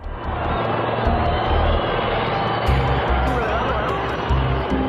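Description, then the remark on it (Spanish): A helicopter carries the president away from the Casa Rosada over burning streets. Its engine and rotor roar loud and steady for the whole stretch, with deep low rumbling pulses and an indistinct murmur of voices beneath. “Y sale en helicóptero de la Casa Rosada con las calles ardiendo debajo”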